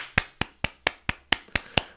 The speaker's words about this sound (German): Genau, kurzer Applaus dafür.